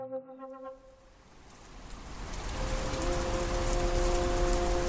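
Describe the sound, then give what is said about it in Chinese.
Rain falls onto muddy ground in a steady, dense hiss that swells after a brief opening of soft tonal notes, with faint sustained tones lingering beneath the downpour. “雨水滋润之下，泥地上的画作长出了一颗名为“捕鱼蜘蛛”的琉璃珠。”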